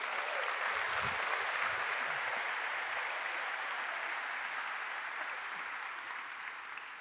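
Audience applause fills the whole stretch, a dense, steady wash of many hands clapping at an even loudness that eases off only slightly toward the end, with no voices standing out.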